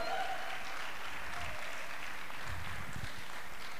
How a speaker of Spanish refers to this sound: Alguien puede hacer ruido esta tarde. Alguien puede chiflar, aplaudir. Alguien diga algo, por favor.